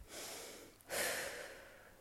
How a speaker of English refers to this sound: So, a simple way to get started is just setting a timer on your phone for, say, 10 minutes and sitting in a comfortable position, closing down your eyes, and just following your breath so, breathing in and breathing out.